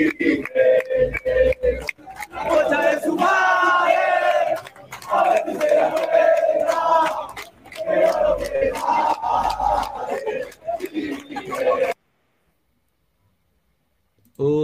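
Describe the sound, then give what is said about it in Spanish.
A crowd of football fans outside a match shouts and chants loudly together at Cristal workers in a sustained, rhythmic roar with sharp claps or bangs punctuating it, then the noise cuts off abruptly into silence. “están les están gritando a los trabajadores de cristal, los hinchas ahora.”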